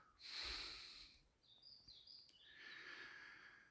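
Birds sing and chirp in short, high warbling phrases just after six in the morning at a lean-to shelter in Hermula, preceded by a breathy snort-like noise. No one speaks.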